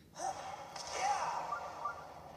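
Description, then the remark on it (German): A sudden rushing gust of wind swells up and sustains as Revali's Gale is used in a Zelda video game, a bright airy whoosh with a second surge partway through, loud, launching the player skyward near a stable. “Wir setzen Rivalis Sturm ein.”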